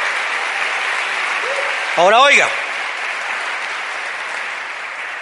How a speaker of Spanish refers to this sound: Démosle ese aplauso fuerte al Señor. Muy bien.